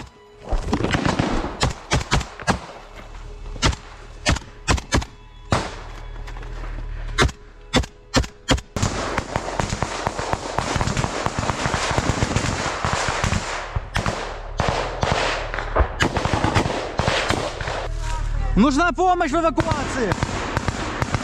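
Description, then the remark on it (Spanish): Sharp, loud gunshots crack out repeatedly from both sides as Ukrainian soldiers assault a Russian trench, first in scattered single shots, then in dense, rapid volleys that keep going almost without pause, with voices heard faintly amid the firing. “Los constantes disparos por parte de ambos bandos son testimonio de los duros combates durante los cuales los ucranianos buscan liberar su hogar.”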